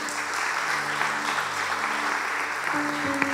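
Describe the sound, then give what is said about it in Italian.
A church audience applauds its leaders steadily, a dense wash of many hands clapping at once that stays loud and even throughout, with a faint sustained tone underneath and no voices on top. “Quindi Chiesa per fuori facciamo un applauso ai nostri leader.”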